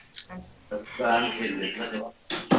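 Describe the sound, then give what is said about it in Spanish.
During a sound test to check for echo, a person speaks for a couple of seconds, and the voice carries a smeared, echoing quality, with syllables trailing and overlapping as if repeated back slightly late. “Voy a primero hablar yo vemos si se escucha con eco”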